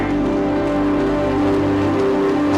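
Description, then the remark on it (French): A large church audience stands, claps and cheers loudly to acclaim the Lord, in a dense, continuous wash of applause that holds steady from start to finish, with no single voice standing out. “Si tu le reçois, lève-toi, acclame le Seigneur très très fort.”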